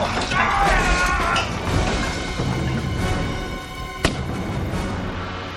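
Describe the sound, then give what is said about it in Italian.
A single sharp pistol shot cracks out about two-thirds of the way through, briefly louder than the dense, steady roaring and crackling of a burning, collapsing house, with muffled voices underneath; the shot is probably the last surviving man shooting himself. “Un colpo di pistola sì, probabilmente era l'ultimo uomo sopravvissuto.”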